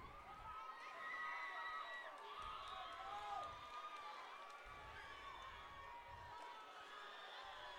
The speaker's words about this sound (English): Crowd from Northern trying to get into it a little bit.